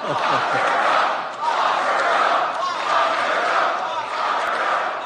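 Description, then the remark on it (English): A large crowd chants the political slogan "Lock her up!" in unison, a loud, steady roar of many voices rising and falling in a repeating rhythm over several seconds. “So the crowd chants, Lock her up!”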